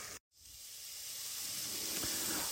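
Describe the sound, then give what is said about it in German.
A steady, loud sizzle of fish cubes frying in a hot pan, with a brief silent gap near the start before the crackling hiss builds and continues. No one speaks. “Ich habe jetzt die Würfel auch schon mal in die heiße Pfanne gegeben, sodass sie nicht mehr festkleben.”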